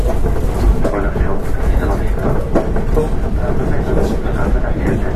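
A Hankyu 8000 series train running as a Kobe Line limited express from Shinkaichi to Umeda: a loud, steady low-pitched roar and rumble that holds constant for the whole five seconds, with a dense wash of wheel and track noise.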